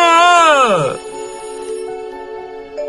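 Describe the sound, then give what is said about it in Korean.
A loud electronic alarm clock rings, its bright tone sliding downward in pitch before settling into a steady, sustained ringing that fills the short moment. “누리는 왜 이렇게 알람 소리가 큰 시계를 준 거야?”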